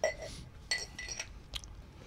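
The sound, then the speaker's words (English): A used drinking glass that had held liquid clinks a few times as it is handled, with short bright taps and a faint ringing tone. There is no talking. “This is my glass. It's Had fluid in it, but you can reuse it.”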